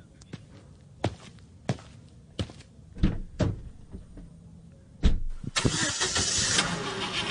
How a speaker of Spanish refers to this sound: Este carro parece mi mandato con los medellinenses y las medellinenses, porque también arrancó mal y se siente ahogado.